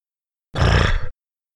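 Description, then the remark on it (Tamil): A voice mimics a goat's sneeze: one loud, harsh, breathy burst lasting about half a second, with a snorting, grunting edge, then silence. “என்று ஒரு ஆடு தும்மியது”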